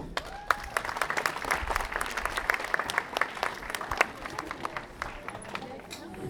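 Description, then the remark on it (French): An audience applauds to welcome the fencing section of the Espérance club of Fontenay, a dense patter of many hands clapping with sharp individual claps standing out, sustained at an even moderate level throughout. “Voilà, comme vous pouvez voir, la piste est prête et on va accueillir euh, euh, la section euh, escrime d'espérance qu'on peut applaudir.”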